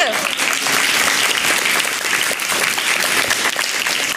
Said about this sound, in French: on peut l'applaudir.